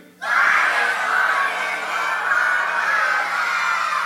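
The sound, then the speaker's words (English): An audience bursts into loud, sustained shouting and screaming all at once on a count of three, a dense wall of voices that holds steady for several seconds without letting up. “You guys are loud.”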